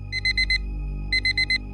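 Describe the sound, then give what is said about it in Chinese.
An alarm clock on a desk beeps in the afternoon, in two bursts of four rapid, high-pitched electronic tones separated by a short pause, sounding clearly over a low, steady background hum. “桌上的闹钟提醒你，此时已是下午，天色将暗。”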